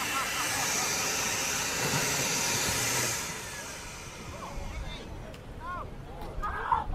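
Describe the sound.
A homemade hovercraft carrying a volunteer on his first ever hovercraft ride runs with a loud, steady, hissing roar of rushing air for about three seconds as it moves back and across the front, then quiets as excited voices and shouts rise over a lingering low rumble.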